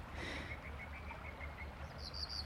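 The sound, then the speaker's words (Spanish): Small birds chirp quietly in a sunny garden on the morning of the spring equinox, in a steady series of short tweets, then a few higher, brighter calls, over a low rumbling background with no voices. “Se escuchan los pajaritos, los gallos, los caballos pastando y”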